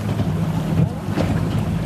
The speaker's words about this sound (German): Das Schlauchboot reitet über die Wellen, die Gischt spritzt ins Boot.